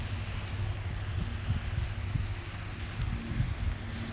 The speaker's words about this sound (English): You also hear the fountain too, so walk around one.